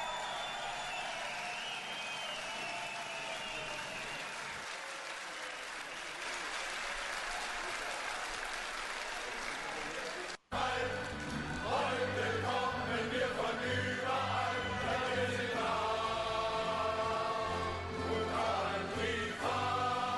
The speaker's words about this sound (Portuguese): Bom, então a gente ouve agora aqui na Central 3. Som das torcidas.